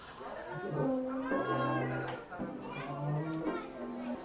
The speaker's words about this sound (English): Oh. Can you hear them? They're snoring.